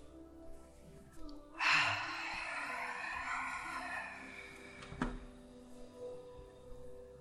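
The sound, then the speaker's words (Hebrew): A single long, deep yoga breath, drawn in sharply through the nose and then released slowly through the throat with a soft, airy rush, fairly loud against quiet surroundings. Faint movement noises follow. “בואו ננשום כאן חמש נשימות, שאיפה מהאף, נשיפה מהגרון לאפשר לטבור להימשך פנימה ולמעלה, לאגן להשתרש.”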